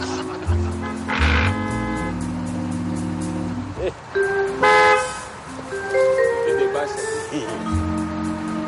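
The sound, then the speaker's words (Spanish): A car horn honks repeatedly in loud, sustained blasts of varying length in street traffic where a bus has stalled. Its steady tones overlap and shift in pitch over a rumbling traffic background. “Los cinco se vuelven para ver quién está pitando.”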